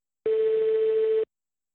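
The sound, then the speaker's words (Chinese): A single steady telephone ringing tone, one unbroken mid-pitched beep lasting about a second, clear and alone with silence on either side and no voices, from a call to the Hubei Provincial Health Commission and the Qianjiang Municipal Health Commission. “而我们多次尝试拨打湖北省卫健委还有潜江市卫健委的电话。”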